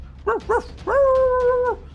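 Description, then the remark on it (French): A dog gives two quick, sharp barks, then holds a long, steady howl-like cry as it runs at full speed toward a woman; fairly loud, with no voices. “Puis un chien qui part à toute vitesse vers elle.”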